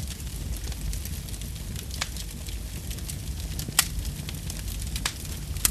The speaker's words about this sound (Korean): 오늘따라 이 장작 타는 소리가 참 따뜻하게 들려지네요.